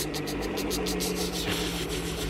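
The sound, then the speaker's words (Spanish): Boat motors sputter in rapid, choppy pulses, loud, over a steady low rumble, as the boat is driven through a storm. Their rhythm falters and changes partway through as the engines struggle and die. “Pues este, yo venía manejando los motores así. Pues empiezan a hacer...”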